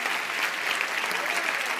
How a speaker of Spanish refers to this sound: Si le vas a dar ese aplauso al Señor, dáselo mejor.